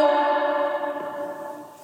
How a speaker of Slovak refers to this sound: Dobrá ozvena. Konečne má moja relácia ozvenu.